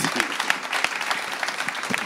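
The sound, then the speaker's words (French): Steady audience applause for a song fills the whole stretch, a dense wash of many hands clapping at a brisk, even level with a few sharper individual claps standing out. “Je crois qu'on peut applaudir quand même les quelques la chanson.”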